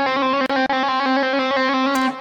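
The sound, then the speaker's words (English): An electric guitar with a light overdrive sustains a bright, harmonically rich note that rings steadily, broken by two quick pick attacks and fading slightly at the end. “I'm using a little bit of distortion, right? Not way too much, but just a little bit to kind of get the action going here with this.”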